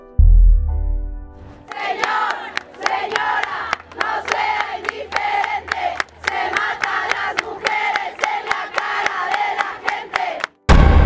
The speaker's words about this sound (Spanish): Señor, señora, no sea indiferente, se mata a las mujeres en la cara de la gente, fue el grito con el que varios asistentes motivaban a los demás a unirse a este grito.